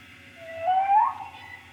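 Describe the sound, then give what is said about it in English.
A single high, rising bleat of a baby goat sounds briefly in the background, fairly faint, over a quiet low hum. “Did you hear the baby goats?”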